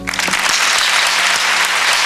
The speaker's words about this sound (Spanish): Y la gente aplaudiendo, claro, porque no nos habíamos enterado.